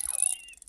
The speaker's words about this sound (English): Does she understand the, the sound a comb makes on a microphone? Oh, I love this sound.